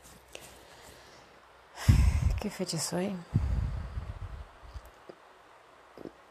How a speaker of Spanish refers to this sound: ¿Se siente el ruido de fondo? Eh, son los ventiladores que están funcionando.